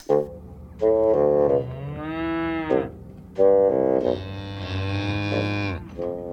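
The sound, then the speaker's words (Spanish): Cows moo loudly, several long, drawn-out lowing calls overlapping one another in quick succession, with no talking. “Mientras tanto, ajenas al debate que generan, las vacas pastan en los campos o comen estabuladas en macrogranjas, al igual que otros animales.”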